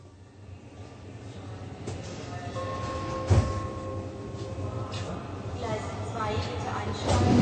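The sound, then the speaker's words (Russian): A passenger train from Cologne to Berlin rolls steadily along the rails with a constant low rumble and rattle, a brief clunk partway through and a faint metallic whine. Muffled voices surface now and then beneath the noise. “Toll, wir fahren ja schon.”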